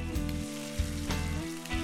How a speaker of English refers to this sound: Now, you hear that sizzle? Well, that's a different kind of real meat. It's real tender, it's real juicy. It's just as real as the best pot roast or leg of lamb you've ever tasted.